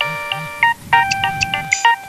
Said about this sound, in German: Ja, mit meinem Handy. Sorry, ich geh mal gerade ran.